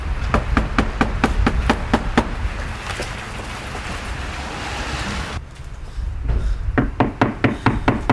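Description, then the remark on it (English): Police knock loudly and rapidly on a door during arrests in Essex on suspicion of fraud and money laundering: sharp repeated bangs in bursts, a brief pause, then another fast volley, over a steady rushing background noise. No one speaks. “That was the police knocking, not the reporter.”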